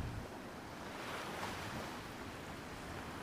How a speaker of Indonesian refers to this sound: Dari bawah tebing, terdengar suara ombak pecah dan berdebur di permukaan batu.